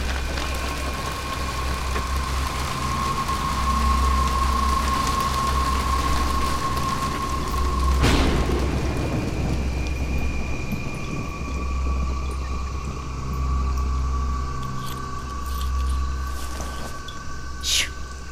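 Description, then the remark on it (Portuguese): Steady rain hisses through a jungle under a low droning hum. A sharp knock lands midway, and afterward the downpour thins into a softer, sparser patter of drops falling from the trees as the rain stops. “E a chuva parou.”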